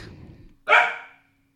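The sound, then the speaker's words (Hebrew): A dog named Barak lets out one sharp, loud bark, ringing briefly before fading into quiet, preceded by a faint low murmur. “ברק, אתה, אתה מפריע לנו לדבר על אה, מתן וגיא.”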